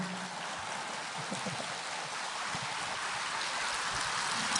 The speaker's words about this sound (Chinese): 长时间的掌声。